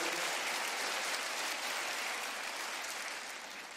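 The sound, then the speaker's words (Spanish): An audience breaks into sustained applause for the Lord, a dense, steady wash of many hands clapping that holds strong throughout and eases slightly toward the end, with no clear voices above it. “Si lo crees, dele un aplauso al Señor y dígale, yo así lo creo.”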